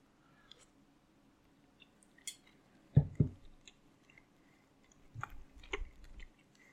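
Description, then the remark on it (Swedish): Moist chewing of a first mouthful of dinner of rice, a piece of meat, onion and sauce: a couple of sharp bites, a pause, then a denser stretch of squishy mastication, with no talking. “Så jag tar lite av varje här. Ris och en bit kött och lite lök och sås. Och så tar vi den första tuggan.”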